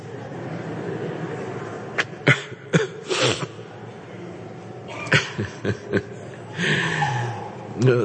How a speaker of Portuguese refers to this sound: A criança está até tossindo também, né? Estão ah. fazendo um concurso para ver quem tosse mais alto, ela ou eu.